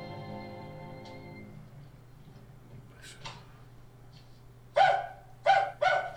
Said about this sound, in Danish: Hvorfor skal han gø?